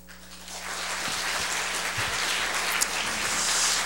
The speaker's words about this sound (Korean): 오늘 목사님 나오실 때 여러분 아, 박수로 환영해 주시고